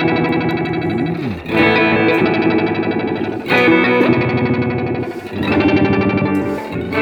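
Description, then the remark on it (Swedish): A dense, distorted electric guitar chord swells through a heavy effects pedal as its left momentary switch is pressed down, with warbling, shimmering modulation; it drops out briefly around the second and fifth seconds before surging back, loud and sustained. “Eh, då ska jag trycka ner moment, eh, den vänstra då.”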